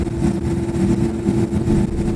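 A loud, steady aircraft engine drone, heard from aboard the plane as it heads onto the runway before takeoff, a deep rumbling hum with no voices over it.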